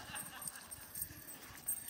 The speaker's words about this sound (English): Could we have my cow frolicking video? Come on. Look at that little pre steak. Isn't he cute?